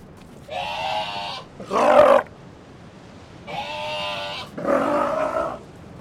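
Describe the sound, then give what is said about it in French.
A South American sea lion mother calls her pup in the colony: two rounds of drawn-out, harmonic bleating calls, each answered by a shorter, harsher, louder call, with no talking. “c'est euh, une mère et son jeune euh, de l'espèce euh, lion de mer d'Amérique du Sud. Donc les, les mères appellent leurs jeunes dans la colonie afin qu'elles puissent le retrouver.”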